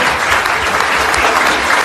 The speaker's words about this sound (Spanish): Gracias. Yo les pague un buen aplauso para mis hermanos. Yo les agradezco.